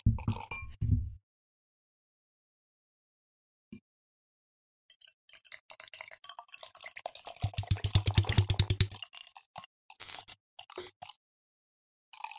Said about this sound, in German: Wir genießen, wir sind gerade stark überfordert, weil wir ja hier alle Männer sind, dass wir zeitgleich uns angucken müssen, in das Bierglas einschenken